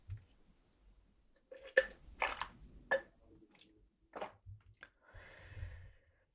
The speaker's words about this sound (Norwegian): jeg tar en slurk vann, så ser vi hvordan det går.